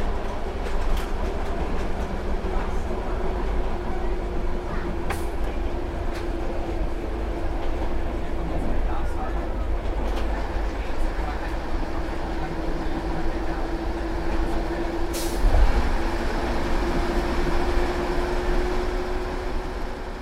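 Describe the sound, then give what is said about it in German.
A swaying train carriage rattles and rumbles steadily over slightly bent tracks at under 85 km/h, continuous, with a low droning hum and scattered clanks and clicks, one sharper jolt near the end. “Der Wagen schlingert. Die Gleise erlauben nicht mehr und sind leicht verbogen.”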